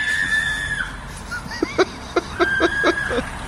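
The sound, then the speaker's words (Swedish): A sustained high-pitched shriek fades out, then a crow, attacking a person who is filming, caws in a quick, irregular series of about six harsh, rasping calls, loud and clear over a faint background noise. “så fortsätter han filma och då sker liksom en till kråkattack.”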